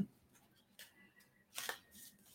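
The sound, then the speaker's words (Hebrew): Quiet riffling of a Magical Times card deck by Jody Bergsma as the daily card is drawn, with a few soft papery bursts and a louder crisp flick near the end as a single card is pulled, no voices. “לא נסיים בלי הקלף היומי.”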